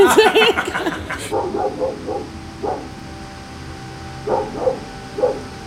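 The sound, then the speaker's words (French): Dogs bark on a Saturday night in Elmore, in a rapid, loud flurry at first, then a few scattered, quieter barks follow with pauses between them. “Les chiens ont assurément une place le samedi soir à Elmore.”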